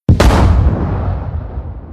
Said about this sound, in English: Or the tank, the, uh, the, in, in our massive explosion, there's this uh, tank anti missile.